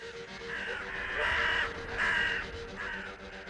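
A crow caws four times in a steady rhythm, harsh, raspy calls, the middle two loudest, with no voices present.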